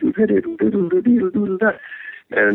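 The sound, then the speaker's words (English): A voice imitates Philip Glass's minimalist group of four or five keyboards with quick, pulsing repeated syllables, then a sustained high held note and a final burst. It is fairly loud, with no other instruments. “So Philip Glass was a, he's probably a little older than me, but he, he would come to school and play with his group, which was like four or five keyboards.”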